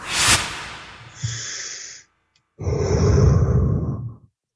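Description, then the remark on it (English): Two deep, breathy exhalations, the first starting with a sharp, noisy burst, then a brief silence before a longer, fuller breath out. No talking. “I'm breathing nice. I'm breathing clean. I'm breathing happy.”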